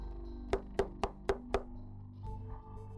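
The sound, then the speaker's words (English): Five firm, evenly spaced knocks on the wooden door of a stately home as King John knocks, sharp, followed by a brief stretch of quiet background with no voices. “He reluctantly went to the door and knocked.”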